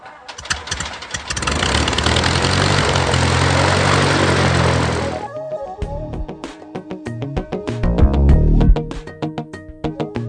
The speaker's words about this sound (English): hearing a little bit of background noise throughout the day, but it's just airplanes, so it's not it's, it's not really noise. Good background noise.